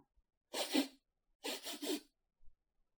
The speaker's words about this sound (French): … reniflant.